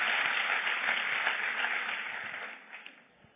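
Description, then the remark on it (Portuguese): An audience applauding together, a dense, steady wash of clapping that holds for a few seconds and then gradually thins and fades toward the end, with no voices over it. “Então aplaude ele bem.”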